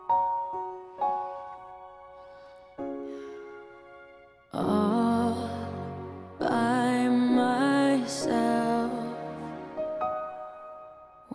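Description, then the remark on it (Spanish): A song sung half in English and half in Icelandic opens with a few sparse, ringing notes, then swells into a louder, fuller section where a sustained singing voice carries over the instruments. “tiene además la particularidad que la mitad del tema está cantado en inglés y la otra mitad está cantado en islandés”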